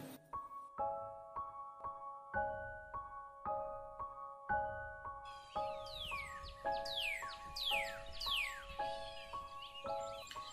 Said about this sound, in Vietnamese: Lúc này trời đã sáng Bên ngoài tiếng chim đang hót líu lo trong ngày mới